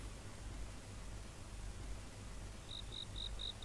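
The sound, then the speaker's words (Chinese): Cicadas chirping on a humid summer night: a steady hiss with low hum, then a run of five short, high-pitched chirps repeating in an even rhythm near the end, no voices. “这是蝉鸣不止而潮湿的夏夜”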